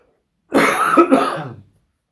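A single fairly loud cough with a rough, throaty quality, lasting about a second, heard on its own with no talking.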